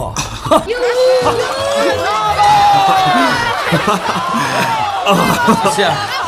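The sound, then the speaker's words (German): An audience at a show breaks into loud, roaring applause with excited shouts and cheers as a monster's growling stops and the lights come back up, a dense, sustained wall of voices that stays strong for several seconds. “Doch als das wütende Knurren des Ungeheuers verstummt war, und das Licht wieder heller wurde, brach tobender Beifall aus.”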